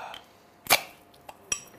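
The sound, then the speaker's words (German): Drink glasses, two shots and an ale served as a Herrengedeck, are set down on a hard surface: two sharp clinks with a faint tap between them, the second ringing briefly and bright, over a quiet background. “Da einen kurzen für dich, einen kurzen für mich und natürlich gibt es ein S-Ale dazu.”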